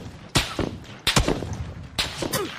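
Several sharp, loud gunshots crack out in three quick bursts roughly a second apart, each leaving a brief echoing tail, with no voices over them.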